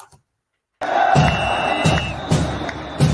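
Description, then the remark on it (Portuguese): After a moment of silence, a loud crowd roars and cheers continuously, with steady rhythmic accents every half second or so, like an energetic intro sting built on stadium cheering. “Depois da vinheta, como você já sabe.”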